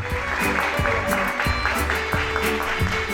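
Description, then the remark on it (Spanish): An audience applauds a licensed professional (licenciada) about to speak, a steady wash of many hands clapping at once, fairly loud and even for the whole three seconds without a pause. “Vamos chicos, aplausos para la licenciada”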